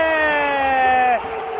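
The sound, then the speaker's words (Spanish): A loud, sustained electronic buzzer ends the second quarter of a Real Madrid basketball game as Luka Doncic's three-pointer puts Real Madrid ahead 41-39, blaring for just over a second with a steady, harmonically rich tone, then cutting off, leaving crowd noise and cheering underneath. “triple sobre la bocina de Luca Doncic para poner el Real Madrid por delante, 41-39 final del segundo cuarto, vaya canastón de Luca Doncic.”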